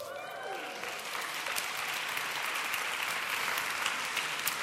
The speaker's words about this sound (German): Kann jemand den Applaus aufnehmen?